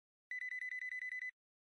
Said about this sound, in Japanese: 神谷の携帯が鳴る。